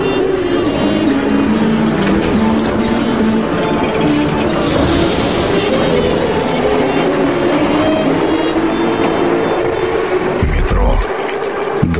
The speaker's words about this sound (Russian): Это действительно метро.